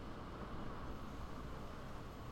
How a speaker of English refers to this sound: It's raining now. Uh, I think I heard and, something. Did, was that thunder? Uh, it's I think it's just rain hitting the roof.